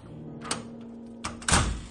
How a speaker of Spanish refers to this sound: Cerró con seguro su puerta y se acostó. En ese momento se escuchó que la chapa abrió